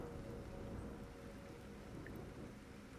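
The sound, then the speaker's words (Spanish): Steady rain falls slowly and continuously at night, a soft, even patter with a low rumbling undertone, unbroken throughout, with no voices present. “Escucho la lluvia cayendo lenta y los automóviles que pasan veloces.”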